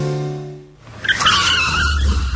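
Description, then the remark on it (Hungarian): A car engine revs with a low, steady drone as the car is shifted down into second gear and given a big throttle blip, then a sharp burst of tire squeal cuts in, a loud, wavering screech of rubber skidding before fading slightly. “Visszakapcsolunk kettesbe, és adunk egy kövér gázfröccsöt.”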